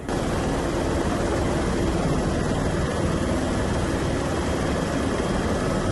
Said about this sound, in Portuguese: Em Ubaíra, esse morador aguardava o socorro no telhado. Um helicóptero da Polícia Militar conseguiu fazer o resgate.